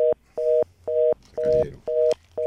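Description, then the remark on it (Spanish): A telephone line tone after a caller's call drops during a phone-in program: a steady mid-pitched electronic beep pulsing on and off about five times in even rhythm, with a brief muffled rustle partway through and no voices. “Esto se cayó todo.”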